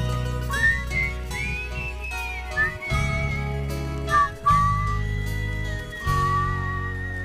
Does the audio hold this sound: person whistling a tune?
yes